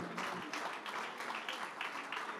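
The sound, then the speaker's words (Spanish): An audience applauding in praise of the Lord: dense, steady clapping from many hands, with a loose rhythmic pulse running through the crackle and holding at a constant loudness throughout. “Aleluya, fuerte ese aplauso de alabanza al Señor.”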